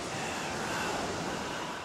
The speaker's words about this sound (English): is it just me or is the ocean extra haunting this evening?